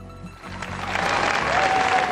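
Applause from a large audience in the sports hall in Bled, Yugoslavia, during a live TV broadcast, swells into a dense, steady wash of clapping, growing louder across the couple of seconds, with a faint sustained tone surfacing near the end.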